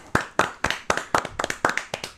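Brief applause: around a dozen crisp hand claps in a quick, slightly uneven rhythm over about two seconds, with no voices.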